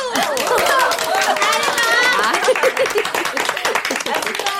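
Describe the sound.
A small group of friends claps in quick, uneven bursts for several seconds to welcome their group's new treasurer, joined by excited cheering and overlapping voices, the applause staying fairly loud throughout.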